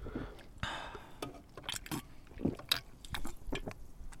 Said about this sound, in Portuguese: E vamos, e vamos eh, beber para vós Uh, ouçam, o, dois jovens a bebericar, um, um, a dar uns golitos.